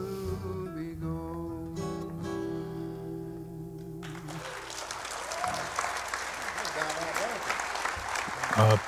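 A song's final sustained notes ring out and cut off about halfway through, then steady audience applause fills the rest, dense clapping that stays loud and even to the end.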